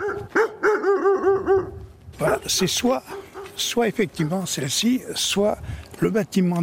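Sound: dog barking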